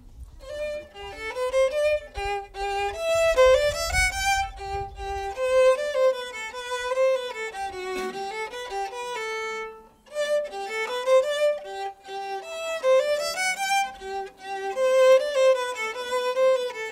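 A solo violin plays a flowing, expressive melody with sliding notes and rich overtones, rising and falling in pitch, with a short breath-like pause midway before the line resumes. No one speaks.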